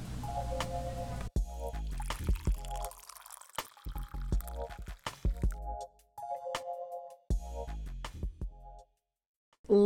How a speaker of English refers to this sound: Pour me some coffee.